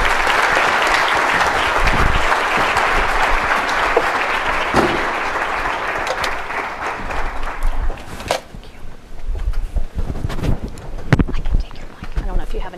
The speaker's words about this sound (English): Please, everyone, remain seated while the Secretary departs, um, but please join me first in a round of applause.